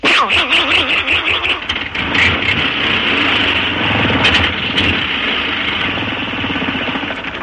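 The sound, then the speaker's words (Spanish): A voice mimics a car engine, a loud, continuous buzzing rumble with wavering pitch, revving up and down steadily for several seconds without pause. “Un automóvil.”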